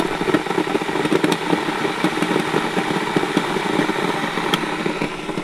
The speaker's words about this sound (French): Ah, d'abord, on va faire bouillir l'eau.